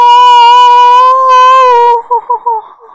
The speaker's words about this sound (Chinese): 你们听到了吗？”让人直起鸡皮疙瘩。这是怪物科尼的叫声。我爸爸说，他躲在迷宫的地底下。